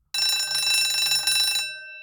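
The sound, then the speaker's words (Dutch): A loud electric bell rings continuously for about a second and a half, a harsh metallic clatter with steady high overtones, then stops abruptly and leaves a brief ringing decay. “Oh, dat was de bel.”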